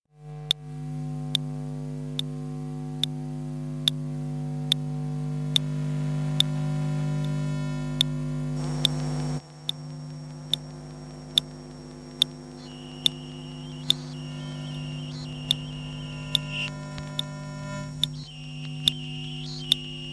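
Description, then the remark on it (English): A steady electronic hum made of layered droning tones, punctuated by regular sharp ticks and, later, warbling high beeps: the electromagnetic sound of a city's networked devices, sensors, antennas and computers, picked up with a special microphone on a 5G walk, with no talking. “It is truly a whole ecosystem of devices, sensors, antennas, and computers.”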